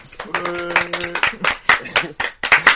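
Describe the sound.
A single person claps their hands about a dozen times in a loose, slightly uneven rhythm, each clap a sharp, fairly loud smack, with a faint voice-like hum under the first few.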